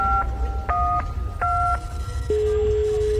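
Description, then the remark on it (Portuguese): A mobile phone number being dialed: three steady two-tone keypad beeps in an uneven rhythm over a low rumble, followed by a single sustained tone as the call connects. “Deixa eu ligar aqui pro celular do seu Otacílio.”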